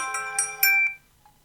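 A phone ringtone for an incoming call plays a bright, tonal melody of several stacked notes with rhythmic accents, then stops, leaving a faint short beep afterward.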